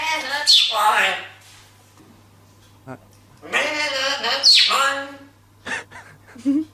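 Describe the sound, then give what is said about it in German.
A parrot sings two warbling, slightly strained melodic phrases separated by a pause, followed by a few short chirps and squawks near the end, over a faint steady hum. “Auch schlecht gesungen von dem Papagei.”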